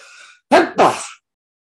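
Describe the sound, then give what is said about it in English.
A single close sneeze: a faint, breathy intake, then a sharp two-part burst that cuts off abruptly into silence. No talking. “There's a smoke, sneeze heart.”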